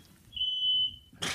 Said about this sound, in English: Is that coming through? That's the smoke alarm. Oh.